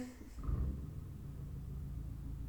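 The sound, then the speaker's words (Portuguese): A motorcycle engine rumbles outside, a low steady drone that swells after a brief moment and holds throughout, somewhat muffled. “E agora vai-se ouvir a moto e tudo.”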